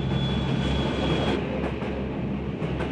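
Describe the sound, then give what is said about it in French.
A warm, crowded metro train with overloaded carriages rumbles steadily along, a dense low roar with a faint high whine running through it and soft rhythmic clatter from the wheels. “plongée dans le métro tiède, interminable couloir de correspondance, portillon automatique, entassement dans les wagons surchargés, second trajet en autobus.”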